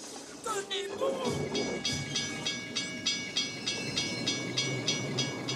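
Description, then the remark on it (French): A steam locomotive running on rails, its steady rhythmic chuffing beats repeating about twice a second at a loud, even level, with a short hissing, tonal burst near the start. “C'était un peu l'ambiance d'une locomotive à vapeur.”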